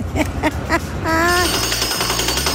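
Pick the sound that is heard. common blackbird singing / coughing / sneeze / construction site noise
construction site noise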